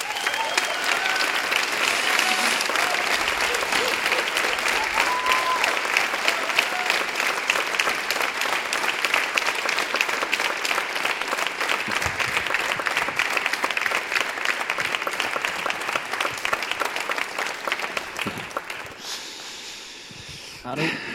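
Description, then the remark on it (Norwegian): Sustained audience applause for a man on his way up to join the host, a dense steady wash of many hands clapping for about eighteen seconds before tapering off quickly at the end, with no one speaking over it. “og dere må gi han en applaus på vei opp.”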